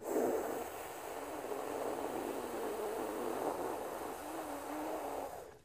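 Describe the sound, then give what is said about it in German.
A long, steady hissing inhalation drawn through the mouth in a cooling breathing exercise, a broad breathy rush of air that holds for about five seconds before tapering off, with no talking. “Atme zischend, kühlend, harmonisierend ein.”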